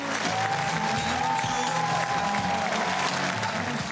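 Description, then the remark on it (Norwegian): A large crowd cheers and claps steadily outdoors for Per Steinbrück at the Brandenburg Gate (Brandenburger Tor), a dense wash of applause with a few whistles rising above it, loud and sustained throughout without a break. “Stor jubel for Per Steinbrück ved Brandenburger Tor nå i helgen”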